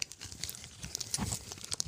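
Rustling and crinkling of the small paper wrapper of a petit four, a steady run of irregular crackles and soft tearing sounds for about two seconds, with no talking.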